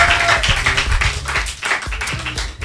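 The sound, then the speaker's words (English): An audience claps steadily for a few seconds, a dense patter of many hands with no voices standing out, applauding to encourage a contestant in a quiz game. “On peut même l'applaudir pour l'encourager.”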